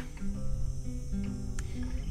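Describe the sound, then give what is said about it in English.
A dense, steady chorus of crickets chirping without pause, heard while walking past a small piece of land, mixed with a low rumbling background and a brief louder sound near the end. No one speaks. “Here come the crickets as I walk past this little piece of land.”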